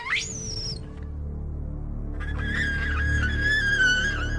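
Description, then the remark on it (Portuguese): A female monkey's alarm call warning her offspring, from a field recording: a sharp, rising high-pitched shriek, a brief pause, then a longer wavering harmonic cry over low rumbling background noise, with no voices. “E descobrimos que a frequência do nosso pior som era muito semelhante ao feito por um macaco fêmea quando ela tentava alertar a sua prole.”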